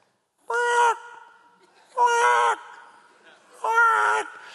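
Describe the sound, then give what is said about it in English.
A person imitates the call of a bird that landed on a back porch ceiling fan, voicing it three times, each a short, loud, strained cry with a harsh edge, separated by pauses of about a second, with no other sound. “I mean, I don't even know if that's a bird sound, but that's what it sounded like to me.”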